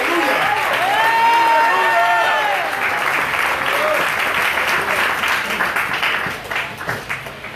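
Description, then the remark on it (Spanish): An audience breaks into sustained applause, a dense wash of clapping with cheering and shouted voices rising over it, gradually thinning toward the end into scattered claps. “Si lo denle el aplauso.”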